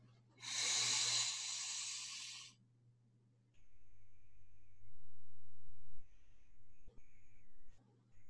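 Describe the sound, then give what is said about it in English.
A single long, hissy inhale through the nose lasting about two seconds, fairly loud and airy, followed by a soft sustained tonal hum with no talking. “Inhale through the nose.”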